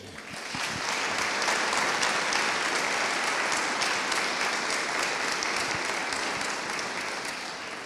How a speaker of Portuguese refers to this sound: E aplauda ao Senhor por isso.